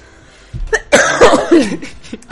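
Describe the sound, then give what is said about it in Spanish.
A loud coughing fit: a few sharp hacking bursts in quick succession, rough and strained, with a brief raspy catch of breath between them and no talking. “Se nos va la pelota oye. Alguna no sale viva de aquí, ¿eh? Con tanta, con tos.”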